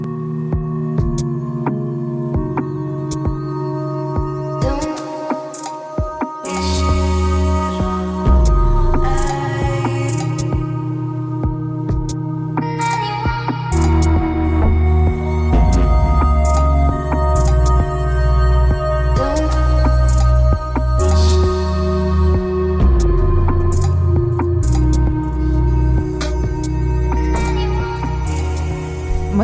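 An instrumental electronic music track plays steadily and fairly loud, with deep throbbing bass under layered sustained synth tones that shift in short sections, and no voices.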